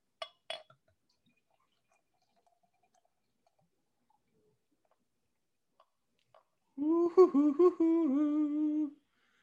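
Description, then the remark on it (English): A beer, black as night, is poured into a glass: a couple of sharp glassy clinks, a long quiet pause, then about two seconds of steady gurgling pour whose tone climbs slightly as the glass fills. “Pour this beer.”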